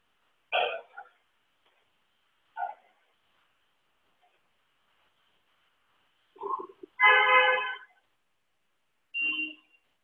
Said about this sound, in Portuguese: buzinando aí na tua bicicleta.